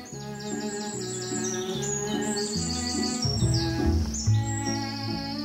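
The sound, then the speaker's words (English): Birds chirp and sing in quick repeated bursts, steady throughout, over a continuous low tonal hum with no talking. “My parents have never heard the sound of the birds or the rustling of the trees or the purr of their cat.”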